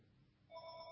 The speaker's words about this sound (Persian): تلفن قطع بود ولی نمیدونم ظاهرا باتریش تموم شده بود و این زنگ باتریش بود